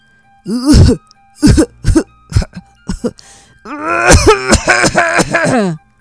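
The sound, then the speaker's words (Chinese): A voice imitates a whale coughing in the Pinocchio story after a fire is lit in its belly: several short, rough coughing bursts, then a long, strained, groaning cough that swells and stutters before stopping. No words are spoken. “鲸鱼的肚子变热后，就开始咳嗽。”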